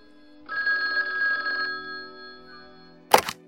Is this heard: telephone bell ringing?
yes